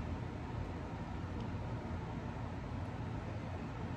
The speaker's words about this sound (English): I apologize for the fan noise when it starts to heat up like this, springtime, summer. That's just how it is.